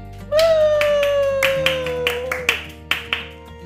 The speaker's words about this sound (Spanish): Pues así es como nos aplaudimos nosotros a nosotros mismos, pero bueno, tenemos motivos, ¿verdad?